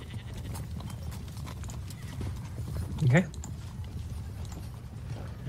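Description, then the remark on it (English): Horse hooves clip-clop in a steady rhythm throughout, with a short rising whinny cutting in midway over the background noise; a voice says a single brief word. “Uh, there's a, yeah, there's a small area to tie up your horse.”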